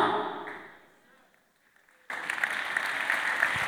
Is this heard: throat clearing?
no